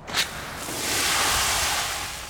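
A police water cannon sprays protesters in a city centre with purple-dyed water, a powerful jet in a steady, roaring hiss that swells after a brief burst and holds loud for about two seconds, with no voices.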